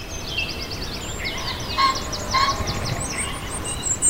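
A crowd of poultry clucking and gobbling over one another in a steady, busy chorus, with louder bursts of calls rising from the din, without any talking.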